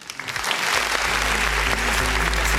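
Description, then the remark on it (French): A crowd applauds steadily, a dense wash of clapping that swells quickly and stays loud throughout, with a low hum running underneath. “Ouais, merci public”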